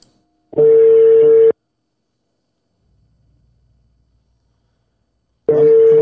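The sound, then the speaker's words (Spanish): A telephone ringback tone while waiting for a caller from Guadalajara, Jalisco to answer: a loud, steady mid-pitched buzzing tone lasting about a second, a long silent pause, then the tone starting again. “a ver si me, contesta la llamada.”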